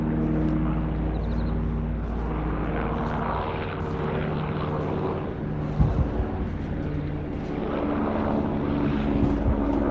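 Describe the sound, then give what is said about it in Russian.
A helicopter drones steadily overhead, a loud, continuous low engine-and-rotor hum that holds for the whole stretch with no voices. “вертолеты тут еще не летали.”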